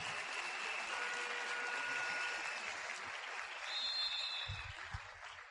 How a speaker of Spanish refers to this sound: Ahí pueden dar un aplauso.